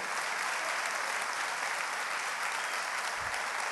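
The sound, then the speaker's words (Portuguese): Sustained applause from an audience for a group of young people, a dense, steady wash of many hands clapping at once that holds at an even level throughout, with no one speaking over it. “Eu quero aplaudir os jovens que viajaram e deram um grande testemunho.”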